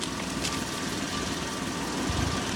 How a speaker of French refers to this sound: Il y a une voiture derrière toi.